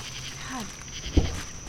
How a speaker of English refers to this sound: We're in Virginia in a suburb of DC. It's a warm summer night. The cicadas are going off